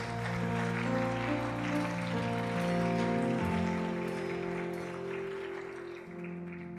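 An audience gives a loud applause to the Lord, clapping steadily for several seconds, a dense crackle of many hands over sustained keyboard chords, tapering slightly near the end.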